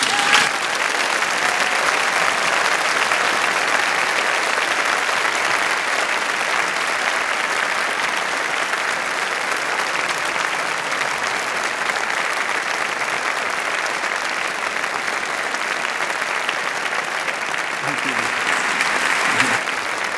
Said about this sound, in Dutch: Zullen we hem even een daverend applaus geven nog een keer?